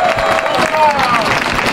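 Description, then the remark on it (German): A crowd applauds Christoph Strasser for his third win at the Race Around Niederösterreich, dense clapping filling the whole moment with loud, even energy and a few higher cheers or whistles glinting through. “Weiterer, einen Applaus für unseren Sensationsmann.”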